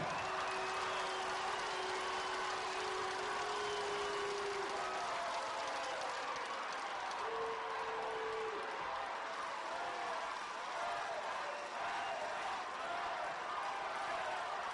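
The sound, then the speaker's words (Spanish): An audience applauds Alfredo del Mazo, governor of the State of Mexico, steadily for about fifteen seconds, a dense, even wash of clapping with scattered cheers and voices rising through it, holding a fairly constant level throughout. “Un aplauso para Alfredo del Mazo.”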